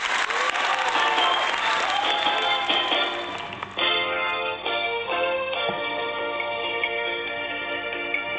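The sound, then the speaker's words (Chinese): A crowd applauds with dense, steady clapping for a few seconds to welcome a singer at a singing competition, then the clapping fades under a swelling musical introduction with sustained tones. “对了，产生共鸣，来，掌声欢迎！”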